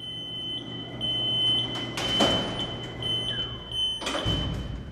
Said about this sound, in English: Y'all coming along? now we're going to close the door. The museum has used this elevator to move a Revolutionary War gunship, a 19th century fire engine, and Julia Child's kitchen.